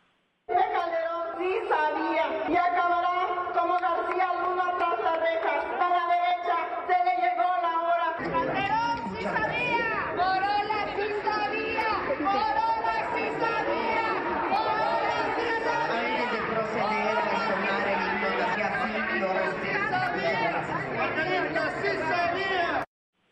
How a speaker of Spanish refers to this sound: Escuche usted el grito eufórico en la Cámara de Diputados con la manta desplegada de Morena, de la 4T. Escuche.